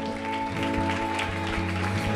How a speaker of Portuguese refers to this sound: Amém. Amém. Uma salva de palmas ao nosso Deus.